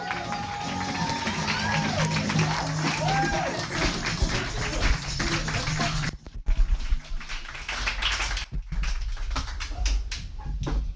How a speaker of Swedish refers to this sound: Eh, men eh, här har vi en som jagar sin dröm, så ge en riktigt jävla varm applåd